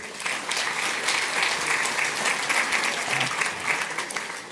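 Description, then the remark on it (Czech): Steady audience applause fills the whole stretch, a dense, even wash of many hands clapping at once with no voices rising above it. “Potlesk, přátelé.”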